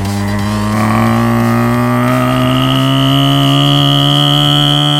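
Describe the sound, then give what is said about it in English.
A loud, buzzy bass note in a bass music tune drones on a single unchanging pitch throughout, steady and engine-like, with no rhythm changes and no voices. “One is motorbike bass. You know, the tunes where there's just one bass note that goes on.”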